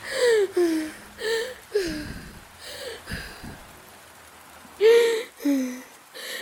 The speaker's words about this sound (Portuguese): Três coisas que eu posso ouvir: a chuva lá fora, o ventilador. carro passando na rua.